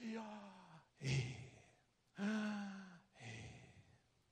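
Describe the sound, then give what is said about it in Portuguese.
Two slow, deliberate breath cycles, each a voiced, sighing exhale followed by a loud, airy rush of breath, repeated in a steady rhythm with no words spoken. “Deus ele é tão soberano ao ponto de colocar a pronúncia do nome dele no som da respiração do homem.”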